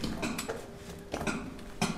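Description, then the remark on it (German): Sharp metallic clinks of a mallet striking a chisel on rock, mining work with Schlegel und Eisen (hammer and chisel) as done for centuries, several irregularly spaced blows with a bright ringing edge, heard on their own with no talking. “Sie hören jetzt die Arbeit mit Schlegel und Eisen, also mit diesem Hammer und dem Meißel so wie man über Jahrhunderte oder zu Beginn hier des Bergbaus gearbeitet hat.”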